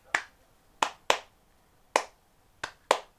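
Six sharp hand claps in an uneven rhythm, some spaced apart and some in quick pairs, each a crisp, bright slap that decays fast, with no talking.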